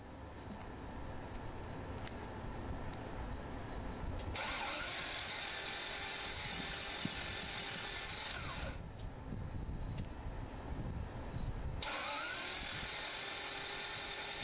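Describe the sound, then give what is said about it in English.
A car engine cranks repeatedly and fails to catch, the starter grinding loudly in long bursts broken by short pauses, with no one talking. “Don't let the summer creep up on you and let your ignition or your engine sound like it's suffering.”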